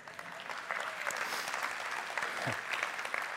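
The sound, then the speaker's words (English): An audience gives a round of applause, a dense wash of overlapping claps holding an even, moderately loud level throughout, with no voices standing out. “Would y'all please give my man, Dr. Carl, Coach Bubba White, a round of applause.”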